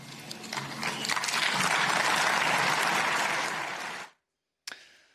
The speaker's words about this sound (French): Il a été ovationné euh, par les chefs d'État euh, des pays de l'Union européenne